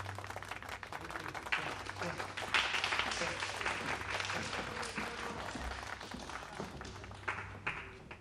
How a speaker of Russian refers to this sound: Ваши аплодисменты, аплодисменты.